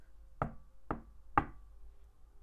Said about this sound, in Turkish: Bir gün kapının 3 kere tıklatıldığını duyduk.